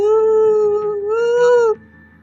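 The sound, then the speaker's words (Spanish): A voice imitates eerie moaning heard in the street around 2 a.m.: one long, steady, drawn-out howl that wavers slightly in pitch for nearly two seconds before cutting off, loud. “Y se empezó a escuchar quejidos en la calle.”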